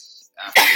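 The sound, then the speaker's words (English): A single loud sneeze: a quick breathy intake followed by a sharp, explosive burst of air, with no talking during it. “Oh, oh bless you.”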